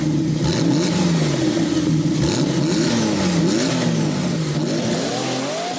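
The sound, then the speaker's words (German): A loud car engine revs up and down repeatedly, its pitch rising and falling in sweeping surges, continuous with no voices over it. “Heute geht es mit 8000 PS Richtung Klimaschutz.”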